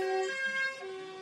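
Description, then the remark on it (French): A car horn blares in one long, steady honk lasting just over a second, loud, with no voices around it. “Excusez-moi, ça a klaxonné.”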